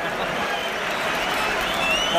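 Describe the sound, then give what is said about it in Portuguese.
A large crowd of Arsenal fans cheers and roars at a football match against Tottenham in a steady, dense wash of many voices, holding a constant loudness for a couple of seconds with no single voice standing out. “A torcida do Arsenal me dando orgulho, finalmente!”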